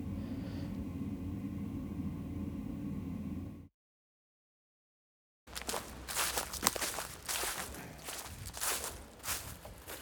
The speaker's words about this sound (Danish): Jeg går af øh, det, der kaldes for Kongens Højmose Allé. Jeg øh, er ude i skoven. Og alléen øh, er sådan set ja, en snorlige allé, der kører igennem et stykke af skoven. Flankeret af de her tårnhøje elletræer.